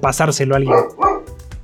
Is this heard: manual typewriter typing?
no